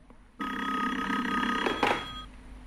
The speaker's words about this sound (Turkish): Demin de çaldı telefon fakat kimse e, cevap...